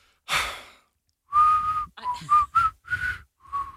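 A person whistles a short, breathy tune of several clear notes around a steady pitch, starting with an airy intake of breath, close and fairly loud, with no talking.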